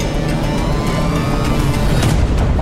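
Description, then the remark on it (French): Two racing cars, not far from each other, roar loudly and continuously along a straight, their engines a dense rumble as they speed along, with no voices over the noise. “Les deux voitures ne sont pas très loin l'une de l'autre”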